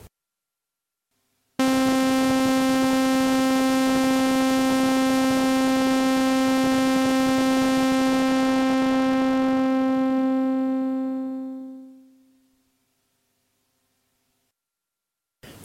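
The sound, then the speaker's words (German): A steady, buzzy synthesizer sawtooth tone holds one pitch for several seconds, then a low-pass filter sweeps down, dulling it until the sound fades away to silence. “Wir haben jetzt so einen Sägezahn.”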